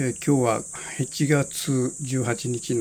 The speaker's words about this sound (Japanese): ちょっと今あのセミの声が聞こえると思うんだけども久しぶりに、えー、房総の八角堂に来てちょっと暑いもんだからですねあの窓を開けっぱなしてますから風の音とか、えー、鳥の声、えー、セミの声が聞こえるかもしれません。